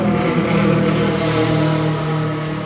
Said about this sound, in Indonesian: Nah itu suara motor.